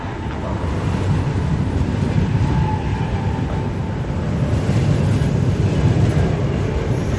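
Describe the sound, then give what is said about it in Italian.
A train rumbles steadily as it arrives at platform 24 of Roma Termini station in Rome, Italy, a dense low roar with rattling that holds at a constant level throughout. “Mi avvicino al binario 24 per incontrare la figlia di Francesca che sta arrivando col treno.”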